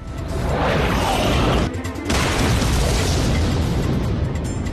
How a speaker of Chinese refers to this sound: 松叔之外的另一队外务组立刻带队前往别院，却没想到这是针对苍精心策划的陷阱。别院突然爆炸，这一组人全部阵亡。